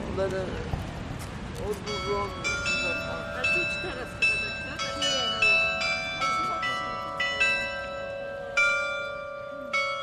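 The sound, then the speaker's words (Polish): Church bells on the hills of Kalenberg ring out in a steady, repeated pattern of strikes, their overlapping tones sustaining and blending, with a noisy, murmuring background at the very start before the bells take over. “To wiedeński zawrót głowy, również z mocnym akcentem specjalnie dla nas uruchomionych dzwonów na wzgórzach Kalenbergu.”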